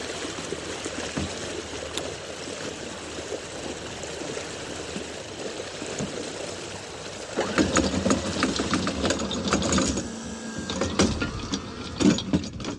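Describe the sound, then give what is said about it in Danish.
A boat anchor is hauled up the last stretch and rinsed in the water as the boat sets off, with steady engine hum and swishing water, then louder clanking, rattling and splashing in the second half. No one speaks. “Hiver ankeret det sidste stykke op. Det ligger nede i vandet lige nu og, og, og bliver skyllet.”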